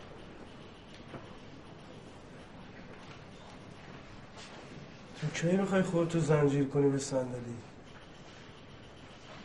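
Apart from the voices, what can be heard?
train passing on rails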